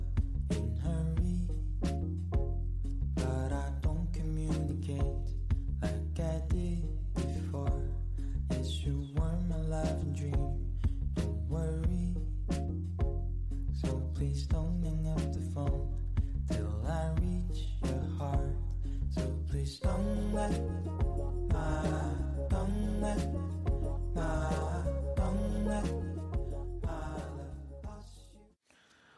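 A pop song plays continuously at steady volume, with a driving beat, bass and layered melodic instruments and vocals, before fading out at the end.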